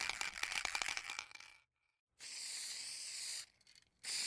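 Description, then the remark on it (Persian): An aerosol spray paint can hisses in two steady bursts, a long one and then a short one after a pause, preceded by a quick rattling clatter; paint sprayed over cut cardboard stencils placed on a wall, as in Banksy's stencil graffiti. Fairly loud, with no voices. “اون این ها رو روی دیوار میذاشت و بعد با اسپری رنگشون میکرد.”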